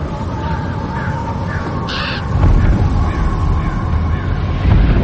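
Harsh caws from a flock of crows in flight ring out as a dragon passes them, over a loud, rumbling low roar, with one sharp call standing out near the middle and others blending into the steady wash of noise.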